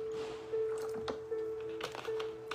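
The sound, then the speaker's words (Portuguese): A person pours water steadily into their drinking glass for a couple of seconds, a continuous splashing trickle with a few small clinks and taps mixed in. “Deixa eu encher um pouquinho o meu copo com água, porque eu já bebi bastante.”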